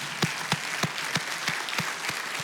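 A large audience at Cathedral Faith applauds steadily for members standing who have attended 30 years or longer, a dense wash of clapping with a few sharper claps landing in a loose, regular beat. The applause stays fairly loud throughout, with no talking.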